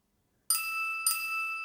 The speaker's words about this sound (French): Ah, vous avez entendu la cloche Vous pouvez arrêter de sauter.